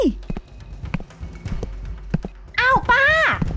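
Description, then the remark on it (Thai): Several hard footsteps of a woman walking away tap at an uneven, unhurried pace, before a raised voice cuts in loudly near the end. “มาคุยกันให้รู้เรื่องก่อนสิ อย่ามาเดินหนีกันแบบนี้นะป้า”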